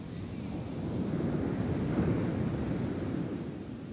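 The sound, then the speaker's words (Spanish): Ocean waves wash in with a steady, rolling roar of surf, swelling slightly in the middle before easing off, with a soft breezy hiss over the top. “Siente el sonido de las olas del mar.”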